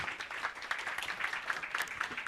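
Audience applause welcoming the moderator of a panel discussion in Almedalen: a steady patter of many hands clapping at once, dense and even throughout, with no voices standing out.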